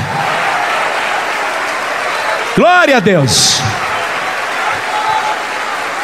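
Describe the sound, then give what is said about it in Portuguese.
An audience at a church service claps steadily and loudly throughout, applauding God, a dense, continuous wash of applause, while a single voice calls out briefly over it partway through. “Vamos aplaudir muito, vamos aplaudir muito esse Deus.”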